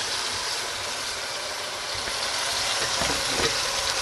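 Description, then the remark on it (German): A steady, dense sizzle of vegetables and spices with a little tomato paste frying in a hot pan fills the whole recording, loud, with a few brief scraping stirs of a wooden spoon near the end and no one talking. “Und das Ganze dann auch mit anbraten. Ich habe es jetzt reingetan.”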